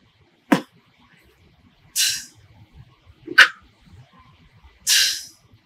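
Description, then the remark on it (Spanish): A basic vocal beatbox pattern performed alone in a beginners' beatbox lesson: four evenly spaced mouth sounds alternating a punchy kick with a hissy snare, at a slow, deliberate pace. “Si fuésemos a empezar a cocinar beats y tracks con esos sonidos, un patrón básico sería”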